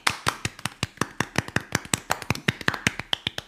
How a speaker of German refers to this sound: Wir sind Weltmeister. So. Im Basketball. Äh, die meisten von euch werden es mitbekommen haben. An der Stelle auch mal Tosen und Applaus.